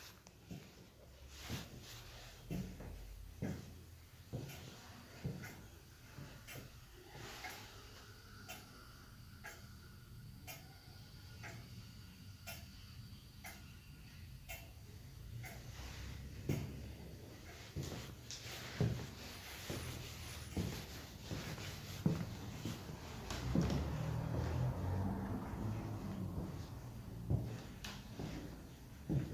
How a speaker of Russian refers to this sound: Специально для вас я записала звуки дома-музея Достоевского.